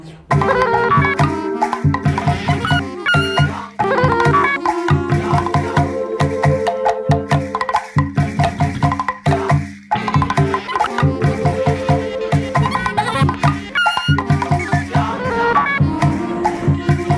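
A loud, full jazz piece plays continuously with rich layered harmonies and a steady rhythmic pulse, with short accented hits and no voices over it.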